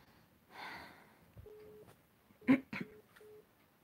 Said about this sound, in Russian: Слушайте, меня уже достал этот, этот звонок. Я извиняюсь, сейчас перезвоню узнать, кто это вообще.